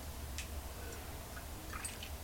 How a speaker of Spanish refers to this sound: Eso sí, para enfrentar ese día húmedo y con muchas noticias que comentarles, voy a darme un sorbito de café sin azúcar, el primero del día.